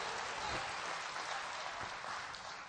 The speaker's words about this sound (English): Give the Lord a hand clap in this house.